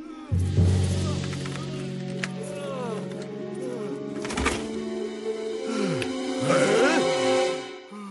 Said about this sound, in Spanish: ¿Qué es eso? Parece que le está atacando un tigre.